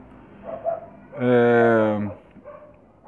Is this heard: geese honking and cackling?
no